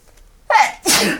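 A loud sneeze in two bursts: a sharp intake-like first blast followed quickly by a broader, breathy explosion, with no talking.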